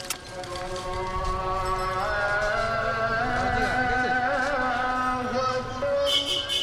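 Busy city street traffic in Bangladesh with trucks, two-wheelers and bicycle rickshaws: a steady, loud wash of engine rumble and clatter, layered with overlapping tonal horn and rickshaw bell notes that waver and shift throughout, no clear speech.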